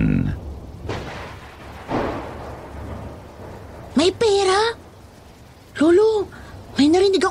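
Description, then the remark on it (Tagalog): Deep booming thunder cracks twice over a steady wash of heavy rain, followed by a few loud, drawn-out vocal cries. “Isang napakalakas na kulog ang halos bumingi sa akin kasabay ng malakas na pagbuhos ng ulan.”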